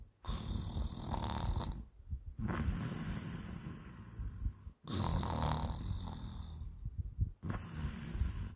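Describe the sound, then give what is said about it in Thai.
A person imitates someone snoring in a seat nearby during the quiet scenes of a film, with long, rasping, rattly breaths, roughly four of them in a steady rhythm separated by brief silent gaps, fairly loud. “แต่เว้ย มันจะมีจังหวะช็อตที่ถึงแม้จะเป็นหนังแอคชั่นเนาะ แต่มันจะมีจังหวะที่เงียบๆ เช่นตอนที่กำลังเปลี่ยนฉาก หรือว่าซีนเศร้าซีนเงียบซีนอะไรเงี้ย มันมีเสียงกลนกลนอย่างเงี้ย”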